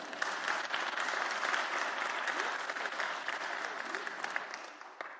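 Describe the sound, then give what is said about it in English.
A crowd applauds steadily for about five seconds, dense overlapping claps with faint voices scattered underneath before the clapping tapers slightly at the end. “Except the Nehemiah 8 doesn't say that they gave him a round of applause.”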